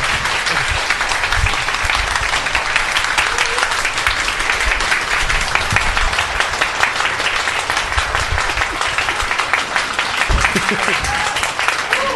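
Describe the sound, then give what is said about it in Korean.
Sustained, dense applause from a large audience for Professor Kim Sang-wook after his lecture, a steady wash of many hands clapping at once, loud and continuous from start to finish with a few low thumps underneath. “그런 의미에서 오늘 어려운 얘기였지만 열심히 들어주셔서 감사하고 특히 너무나 열심히 말씀을 해주신 교수님께 아주 감사하다는 말씀 드리면서 큰 박수 부탁드리겠습니다.”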